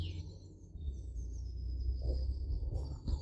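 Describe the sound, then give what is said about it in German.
Quiet outdoor forest ambience with a low, steady wind-like rumble and faint, high chirps and thin whistling calls from various birds. “Nimm die Geräusche wahr, die du hier hörst im Wald.”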